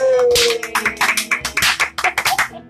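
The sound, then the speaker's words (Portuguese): Hand clapping in a quick, fairly steady rhythm, like a small group applauding together at a Christian gathering, lasting a few seconds before trailing off. “Aleluia! Palmas!”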